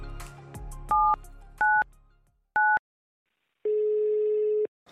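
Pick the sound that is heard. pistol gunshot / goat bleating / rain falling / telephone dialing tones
telephone dialing tones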